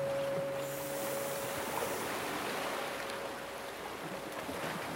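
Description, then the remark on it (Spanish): Slow, steady whooshing breath of a person inhaling and exhaling during a guided breathing exercise, imitating the wash of ocean waves, a continuous airy rush at moderate loudness with a faint sustained tone underneath and no talking. “Por última vez inhala, similando el sonido de las olas del mar y exhala.”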